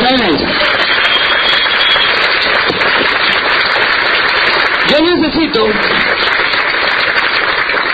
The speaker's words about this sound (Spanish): No sin antes darle un tremendo aplauso a mis colaboradores. Fuerte el aplauso para los que